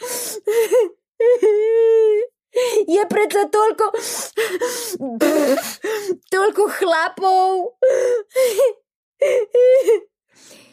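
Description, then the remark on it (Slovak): A voice imitates a girl sobbing while speaking in a theatre, with shaky, wavering pitch, catching gasps and whimpering breaks between short bursts of words, fairly loud. “Vyrážala zo seba pomedzi vzliky.”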